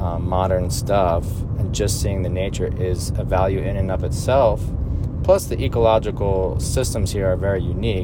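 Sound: car interior road noise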